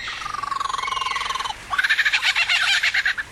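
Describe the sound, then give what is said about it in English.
An Australian male lyrebird, during mating season, runs through mimicked calls: a steady, rapid trill of pulsing notes, then a brief break and a louder, harsher rattling burst, clear with no voices. “Australian male lyrebirds become masters of mimicry during mating season and will imitate just about any sound from their current environment”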